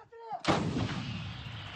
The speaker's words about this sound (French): des armes du monde entier entre les mains des Ukrainiens. Face aux Russes, Kiev utilise des canons américains,